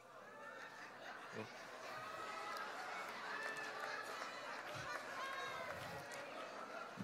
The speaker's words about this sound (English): the gasp I heard in this room some of y'all like, this is not right.